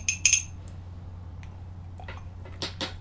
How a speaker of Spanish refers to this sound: así que me voy a dar el segundo sorbito del día. Revuelvo.